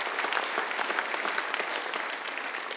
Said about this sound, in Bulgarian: Да, може да ръкопляскаме за това. Благодаря.